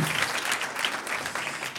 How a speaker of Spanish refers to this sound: Un aplauso al Señor.